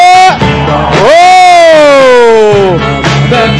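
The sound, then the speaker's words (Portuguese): A loud, sustained shout from an audience asked to shout if they are happy rises and then slowly falls in pitch, strong, with a couple of shorter yells before and after, like an excited crowd cheering on cue. “Quem tá feliz dá um grito!”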